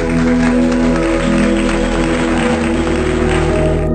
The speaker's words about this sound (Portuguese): Chegado o momento, tirou-se o pano que velava o quadro houve caloroso aplauso.